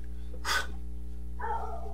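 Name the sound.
dog barking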